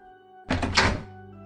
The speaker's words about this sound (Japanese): 教会のドアが開いてペチパーが入ってきた